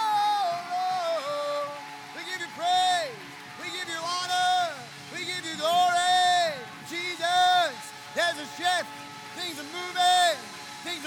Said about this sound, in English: So I want us to give God some praise. I want to give. I want us to shout the name of Jesus, and I want us to clap in this atmosphere, but also over your home. Give Him some praise right now.